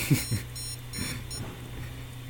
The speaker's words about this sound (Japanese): うーんおあこんな音ですこんな音ですこれが今、えー、電圧がちゃんと通って使えますよっていう音ですで、えー、スイッチを入れるとうん今みたいな音です